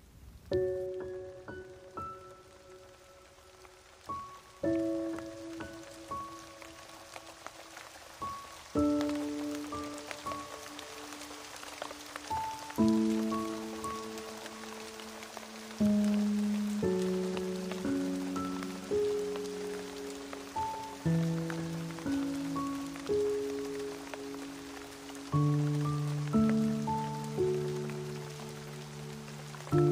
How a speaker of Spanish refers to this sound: Y deja que el sonido de la lluvia te arrulle.